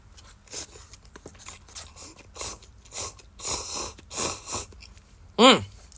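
A series of wet, breathy slurps of slightly cooled shellfish salt ramen noodles, several irregular bursts that grow louder, followed by a short hummed vocal sound at the end.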